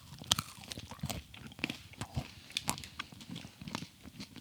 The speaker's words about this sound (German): Klingt so, wenn man reinbeißt, ist Corny Nussvoll.